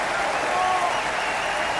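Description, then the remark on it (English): A large opera audience applauds singer Nellie Melba's performance, a dense, continuous wash of clapping at a fairly even volume from start to finish, with no one speaking. “The applause followed like thunder.”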